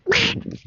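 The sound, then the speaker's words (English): A duck quacks outdoors on a sunny fall day in Wisconsin: one loud, harsh, raspy quack followed by a couple of softer, shorter nasal quacks, with no one talking. “So hopefully the sound of cars driving by or contractors with nail guns or cows or ducks or”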